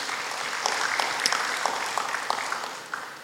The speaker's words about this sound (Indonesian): Berikan tepuk tangan buat Tuhan Yesus.